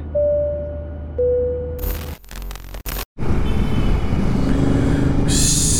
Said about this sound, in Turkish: İş bu ki bu kayıtlar motosiklet üzerinde yapılmaktadır.